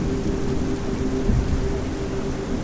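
Heavy rain pours in a steady, dense hiss while a deep rumble of thunder swells briefly near the middle, then settles back under the downpour. No voices.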